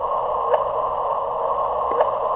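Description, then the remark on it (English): Two brief, rising chirps, about a second and a half apart, pop out of a steady droning hum and static: the gravitational-wave 'chirp' from two black holes colliding. They are short and fairly loud, and nobody speaks. “This is the sound of two black holes colliding.”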